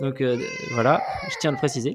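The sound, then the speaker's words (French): A young child who has just woken from a nap, and is waking badly, cries and wails in the background, rising and falling in short bursts, while an adult talks over it. “Euh, alors, j'ai mon petit qui vient de se lever de la sieste, qu'on va peut-être entendre en fond, là, qui se réveille mal.”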